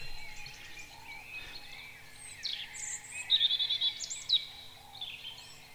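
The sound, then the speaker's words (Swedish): A songbird sings a rippling, tinkling song of very high-pitched notes, with a brief rapid trill in the middle, against a quiet outdoor background with other faint birds. “han beskrev det som en porlande vårbäck med hisnande höga toner.”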